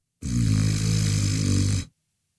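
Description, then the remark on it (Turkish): One long, loud snore lasting about a second and a half, a rough, low, buzzing rattle that holds steady and then cuts off abruptly into silence. No talking. “aha fasulye ayakladım bitti geldim hala mı horluyorum be kuzum be?”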